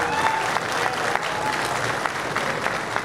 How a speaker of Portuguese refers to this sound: E eu queria uma grande salva de palmas para os pequenos agricultores do estado de São Paulo.